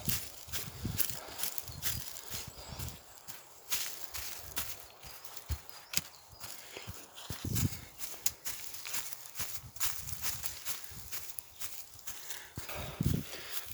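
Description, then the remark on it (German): Footsteps crunch and rustle over dry, golden-yellow hay along a very narrow path through a small grove, a steady, slightly uneven walking rhythm of crisp, scratchy steps with no voices. “Ein kleiner Hain mit einem ganz schmalen Pfad und einer Bodenauflage ausgetrockneten Heu mit goldgelb glänzenden Halmen.”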